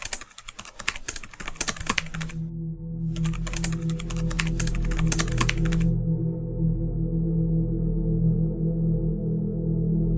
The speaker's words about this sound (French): J'ai préparé mes publications de la journée et aujourd'hui, je ne fais strictement rien, si ce n'est un petit CTRL-C, CTRL-V sur mon clavier.